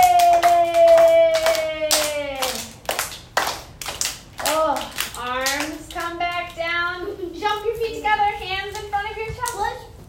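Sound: children clapping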